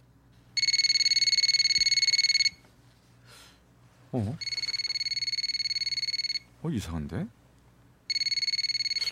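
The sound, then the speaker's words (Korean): An outgoing phone call, made late at night to a woman who had not called, rings: a steady, bright electronic ringback tone sounds in long bursts separated by pauses, three rings in all, while a voice mutters briefly in the gaps. “기다리다 못해 전화를 했지요.”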